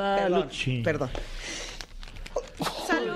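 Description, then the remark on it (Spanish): A sudden, sharp sneeze bursts out in the middle of a Spanish-language conversation, fairly loud, followed by a person speaking briefly as if apologizing. “Salud.”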